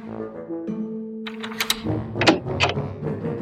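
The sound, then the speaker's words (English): A small golden key scrapes and turns in the lock of a small door, giving a quick series of sharp metallic clicks and rattles with a final louder clack, over a low, steady humming tone. “The key unlocked a small door.”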